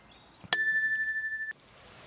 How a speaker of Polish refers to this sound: Aha, dzwoneczek potrzebny.